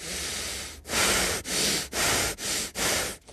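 Loud breathing through the nose: one longer breath followed by five quick, evenly spaced sniff-like inhales in a steady rhythm, with no talking.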